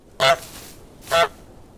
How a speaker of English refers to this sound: you can introduce a honking noise right here